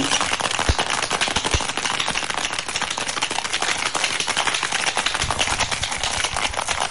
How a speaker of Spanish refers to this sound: Importante, la coctelera, cogerla fuerte que no se nos escape. Y le damos.